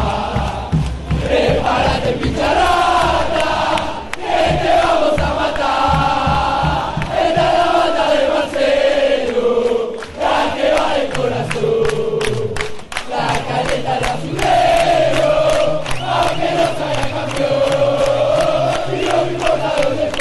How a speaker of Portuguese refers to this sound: música que ouviremos agora da torcida do Ginásia e Esgrima de La Plata.